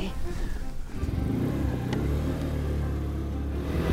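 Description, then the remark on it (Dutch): A scooter engine starts up, revs, then settles into a loud, steady buzzing hum as it drives off, with a faint murmur of voices early on. “Ben je nog nooit achter op een scooter geweest?”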